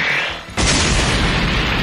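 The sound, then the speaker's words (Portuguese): After a quiet hiss, a rough ice coffin is broken open from within by the man frozen inside as he raises his Cosmo, bursting in one sudden, loud blast, followed by a dense roar of crumbling debris that fills the rest of the moment. No one speaks. “Então ele eleva o seu Cosmo e consegue romper o esquife com facilidade.”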